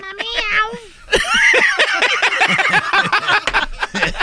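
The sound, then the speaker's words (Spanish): Several cats meow loudly, starting with a drawn-out wavering meow and then breaking into a dense, overlapping chorus of yowls and mews that keeps going without pause. “Esos gatos son bien desmadrosos.”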